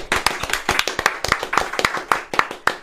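A brief round of applause: sharp, crisp claps in a quick, slightly uneven rhythm, about four per second, steady in loudness for a few seconds, with no voices over them.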